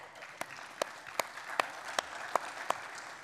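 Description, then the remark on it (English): Seven sharp, evenly spaced hand claps applauding worship musicians, in a steady rhythm a little under half a second apart, over a soft background hiss with no voices. “I, I applaud them with you.”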